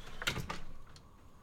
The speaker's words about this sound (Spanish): Los vientos volvieron a silbar y la puerta de la cabaña se abrió de golpe.